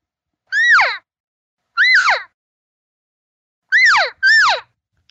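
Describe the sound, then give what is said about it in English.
Four imitated cow elk calls, made to bring a bull elk over: nasal mewing chirps that rise then slide downward, loud, with two spaced calls followed after a pause by a quick pair. No talking. “That's a cow t- asking other elk whether and whoever she's talking to it could be a calf it could be other cows it could be a bull it doesn't matter the same as you saying hey come over here”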